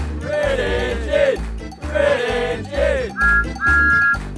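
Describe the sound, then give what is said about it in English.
Thomas the steam engine's whistle peeps twice, short then longer, clear and bright, as he puffs after James, following a stretch of cheerful singing passengers over music. “Thomas peeped his whistle and he puffed as fast as he could after James.”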